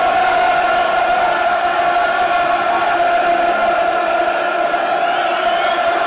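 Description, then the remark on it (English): A huge football crowd roars and chants continuously during a football cup tie in heavy rain, a loud, sustained wall of massed voices from the stands with no break for the whole stretch. “Full-blooded cup tie. This is what you want, dear listeners. Where are you in the world? Have a listen to that.”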